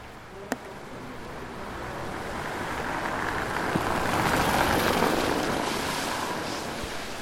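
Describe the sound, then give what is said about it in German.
Autumn wind gusts sweep fallen dry leaves scraping and skittering across wet asphalt in light drizzle at night, a steady rustling hiss that swells gradually louder, with a single sharp tick near the start and no voices. “Gleich fegt der Wind wieder gefallenes Laub über nassen Asphalt, wirbeln Blätter in die Höhe und auf glänzendes Pflaster.”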